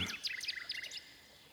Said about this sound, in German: Die Nachtigall sang so herrlich, dass dem Kaiser die Tränen in die Augen traten und ihm über die Wangen liefen.